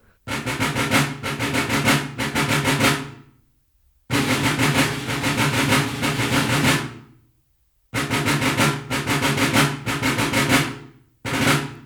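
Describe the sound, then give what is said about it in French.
A military drum call (batterie) from 1754, a ban with rolls: loud, dense rolling drumming in three long phrases, each broken by brief pauses, with a steady rattling pulse and no voices. “indiscutablement, c'est une batterie de 1754, mais je suis incapable de...”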